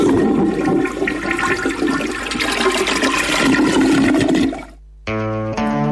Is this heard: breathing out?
no